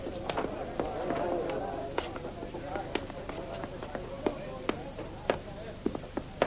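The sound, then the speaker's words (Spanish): Footsteps of a man followed by a young man climb a flight of stairs to the upper floor, a steady run of sharp knocks with uneven spacing, over a faint background murmur. “Ben sube al piso de arriba seguido por el joven.”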